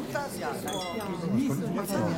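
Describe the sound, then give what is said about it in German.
Glasses clink together in a celebratory toast, a brief bright ring that lingers for a moment beneath lively overlapping voices and chatter. “So, und jetzt trinken wir erstmal einen. Jawohl. Lass uns mal anstoßen.”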